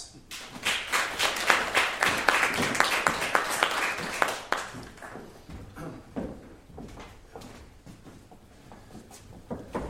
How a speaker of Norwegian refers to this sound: Gi dem en varm applaus.